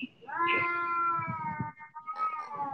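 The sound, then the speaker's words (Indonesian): A cat lets out a long, drawn-out meow that wavers in pitch, followed by a shorter, higher cry, loud against faint background noise. “ya allah tuh kucing kenapa sih”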